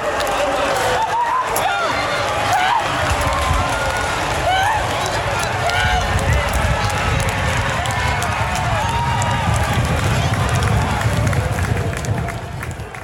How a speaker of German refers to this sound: Es war ein Henkelpreis der Diana, bei dem immerhin wieder 3000 Zuschauer dabei sein durften und das hörte man auch.